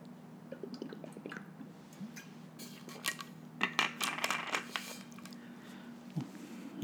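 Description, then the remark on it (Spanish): Quiet sounds of someone taking a few sips of water, with soft wet swallows, small clicks and plastic crinkles from handling a bottle over a faint steady hum. “Deme un segundito que voy a tomar poquito agua.”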